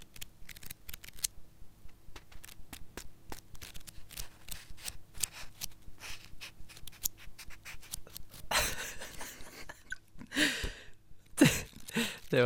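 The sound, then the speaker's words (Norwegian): Dry paper rustling of book pages being flipped in a studio of Studentradioen i Bergen: a run of quick soft ticks, then several louder whooshing flips near the end, with no talking. “lyden av, eh, av blafrende sider. Eh, boksider her i studio.”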